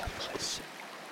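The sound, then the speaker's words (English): A brief, steady hiss of rushing water from a waterfall, with a few soft low thumps at the very start. “Your eyes are most naturally drawn to the waterfall.”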